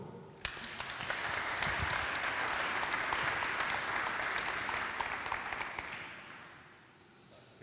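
An audience in Fässbergs kyrka, a church, breaks into applause to welcome a speaker on the state of the climate: a dense, steady patter of many hands clapping that holds for several seconds before thinning out and fading toward the end.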